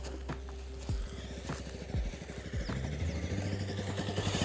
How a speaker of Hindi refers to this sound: okay okay, तो मैं अभी साइलेंट था आपको पता है क्यों मैं साइलेंट था क्योंकि आदमी आ गए थे बाइक से आ रहे थे मैं साइलेंट हो गया